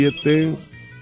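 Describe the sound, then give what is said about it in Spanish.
A telephone rings on an outgoing call placed from a radio show to a listener's number: two short tonal bursts, the second longer, with a buzzing harmonic quality, then fading into a low hum. “Vamos a marcarle en este momento a su número.”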